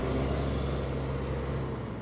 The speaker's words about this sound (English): The doors opened, and the girl did not move. She just sat there in silence, staring at the ground, as the doors closed and the bus drove off.